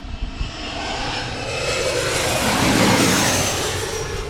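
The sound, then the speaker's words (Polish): An American Eagle (American Airlines) passenger airliner roars low overhead by the Potomac River, a broad rushing engine noise that swells steadily to a peak and then begins to fade, with no voices heard. “American Eagle poleciał. American Airlines to była linia lotnicza.”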